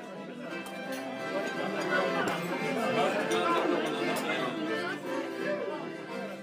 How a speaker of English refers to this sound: This is the sound of a surströmmingsskiva, one of the many ways Swedes celebrate Midsummer's Day around June 21st. The skiva typically happens in northern Sweden, where the preserved fish has its geographic roots.